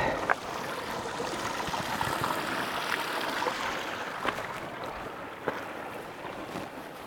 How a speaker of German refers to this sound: Als nächstes kommt rechts vom Weg so ein kleiner, verspielter Bach.